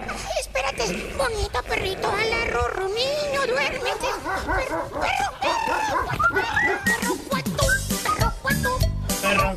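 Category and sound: animal, dog barking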